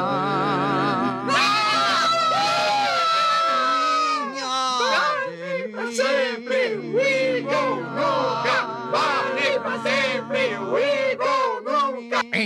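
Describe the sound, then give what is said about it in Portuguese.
A crowd of girl fans, paid to scream, screams shrilly and continuously, many high-pitched voices overlapping in loud, wavering shrieks for the whole stretch, intense. “aquelas garotas que você pagou para gritarem estão trabalhando bem.”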